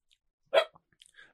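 A single sharp bark from Buster the dog rings out, followed by a few faint clicks and small scuffling noises in an otherwise quiet space.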